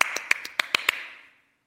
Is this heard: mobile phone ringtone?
no